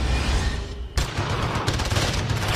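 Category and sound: impact, gunshots fired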